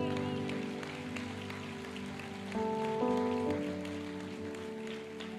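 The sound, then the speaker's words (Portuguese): A church audience applauds at the preacher's request in a steady, dense patter of clapping, with sustained keyboard chords held underneath that shift to a brighter chord midway before settling back. “Eu posso ouvir uma salva de palmas dessa igreja?”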